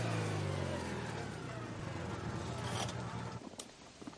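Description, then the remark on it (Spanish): A car rolls along a dirt road, its low engine hum mixed with crunching gravel under the tires, then slows and parks beside a stone plinth, the engine cutting out and leaving a brief quiet click. “El coche circula por un camino de tierra y aparca junto a un zócalo de piedra.”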